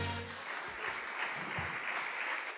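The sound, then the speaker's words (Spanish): An audience claps their hands for Christ Jesus in a steady, dense wash of applause that holds at an even level from start to finish, with no voices standing out. “de fuertes palmas a Cristo Jesús.”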